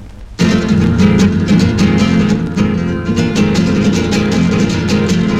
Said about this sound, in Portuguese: Vamos ouvir agora …, com ….